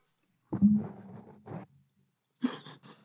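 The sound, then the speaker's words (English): A voiced sneeze, probably a person imitating one, with a drawn-out inhale-like build-up and then a sharp burst, and a second quick, hissy sneeze burst shortly after. “God bless you.”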